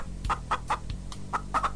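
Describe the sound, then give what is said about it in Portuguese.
A chicken clucks in a quick, uneven series of short, nasal bursts, moderately loud over a low, steady background hum. “Isso mesmo, frango.”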